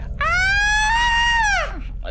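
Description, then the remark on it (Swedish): A chilling scream from a monster-like creature in a prison rings out once, loud, holding a high, piercing pitch for over a second before sliding downward and fading over a low background rumble. “Du hör ett isande skrik”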